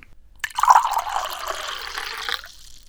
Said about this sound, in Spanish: ¿Quieres que tomemos un poquito de agua? Dale.